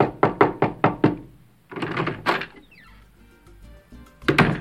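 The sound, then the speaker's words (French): A police officer knocks on a hotel room door in Varadero on the north coast of Cuba at 5 a.m.: five quick, firm knocks on a wooden door in a steady rhythm, followed by rustling and another knock near the end. “Un matin, à 5 heures pétantes, un policier frappe à la porte de sa chambre dans un hôtel de Varadero sur la côte nord de l'île.”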